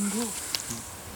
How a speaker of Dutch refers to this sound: And this is an owl, tawny owl.